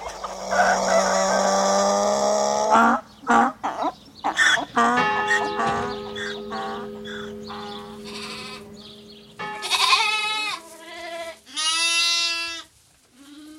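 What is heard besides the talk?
farm animal sounds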